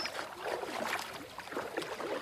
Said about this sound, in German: Du steigst wieder in das graue Ruderboot und ruderst sanft auf die andere Seite des friedvollen Wassers.